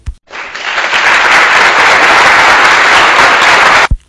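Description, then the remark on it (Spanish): Sustained crowd applause, loud and dense, swells in quickly and holds steady for several seconds before cutting off abruptly, with no voices over it. “Gracias, gracias por los aplausos, pero lo importante es lo siguiente.”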